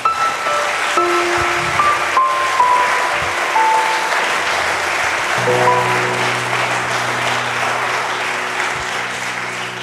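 Steady audience applause given in congratulation fills the whole stretch, a dense, even wash of clapping that stays loud throughout, with faint sustained tones running underneath it.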